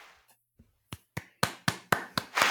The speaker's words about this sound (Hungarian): Yeah, innen is egy taps, innen is egy taps. Mindenhonnan az összes, összes taps.